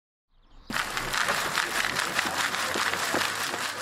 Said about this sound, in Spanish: Lo que estás escuchando es el ruido que hace un colador. Es un colador grande de los que se usaban para buscar oro entre el barro de un río o en la arena del lejano oeste. Pero este colador no busca oro, y lo que busca no está nada lejos.